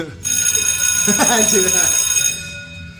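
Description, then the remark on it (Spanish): A closing bell rings steadily for about two seconds, loud, with a bright sustained tone, while voices chatter faintly underneath before it cuts off. “Uh, ya salió la campana de salida, muchachos, de este bonito podcast que está saliendo el lunes.”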